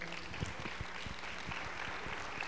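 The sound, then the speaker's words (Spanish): A church audience claps together for the Lord during a sermon, a steady, dense burst of applause that holds at an even, moderate level throughout, with many overlapping hand claps and no voices standing out. “¿Alguien puede dar un aplauso fuerte al Señor?”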